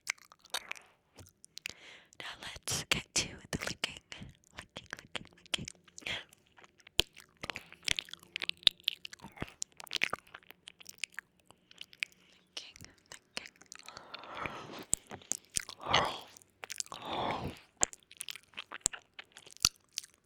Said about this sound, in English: We are back with the 3Dio, and I'm going to be doing some ear licking, but in 4K.